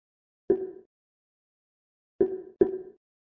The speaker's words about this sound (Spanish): Y escucharon el sonido de que no me permite salirme a las opciones de menú. Me voy a quedar dentro del cuadro de edición.